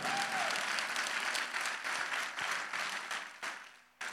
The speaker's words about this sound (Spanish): Si va a aplaudir al Señor, hágalo fuerte.